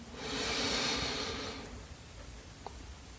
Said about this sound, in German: Wir nehmen gemeinsam einen tiefen Atemzug und atmen ein.